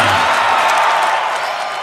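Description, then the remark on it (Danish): A loud, dense roar of a large stadium crowd standing up to cheer and clap for the Danish players, a continuous wash of applause and shouts that stays steady throughout. “Og så rejser alle tilskuerne sig op og klapper og råber helt vildt.”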